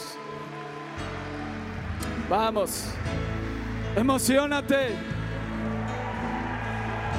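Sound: audience applauding loudly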